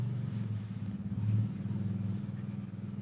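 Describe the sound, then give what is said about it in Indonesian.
A motorcycle with a loud exhaust rumbles steadily as it passes a studio, its deep throaty exhaust swelling briefly partway through before carrying on at a constant drone, with no talking. “uh, eh, gue sih nggak nyalain ya uh, pot yang suaranya kenceng gitu gue gue nggak gue nggak nggak nyalain tuh hal lu itu motor lu segala macem cuman, cuman jangan lewat sini lah”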